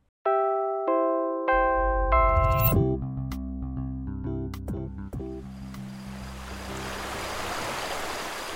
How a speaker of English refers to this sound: Welcome to Nabaoy River. Surrounded by forests and mountains, it teems with life.